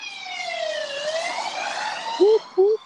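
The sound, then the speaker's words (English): A police or ambulance siren wails steadily, its pitch sliding downward as it passes, followed by two short, louder bursts of a low horn-like tone near the end. “Is that Sam the fuzz of your, your stash? Or an ambulance, I couldn't say.”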